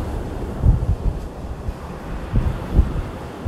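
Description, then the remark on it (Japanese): Outdoor seaside ambience with steady wind buffeting the microphone and the low wash of waves, punctuated by a few stronger rumbling gusts; no one speaks. “あまりにも山の山で暮らしてたのが長いから海に対して無知なんやけどやっぱ魅力的ですね海は見てるだけ今こうやって海を見ながら喋らせてもうてんねんけどなんか俺って大きくなったなみたいな気分になるかな見てるだけで。”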